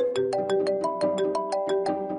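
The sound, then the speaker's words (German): A phone ringtone for an incoming call plays a bright, melodic electronic tune of rapid, evenly spaced tones, fairly loud, with no one talking. “Ja, irgendwann hat der dann auch angerufen”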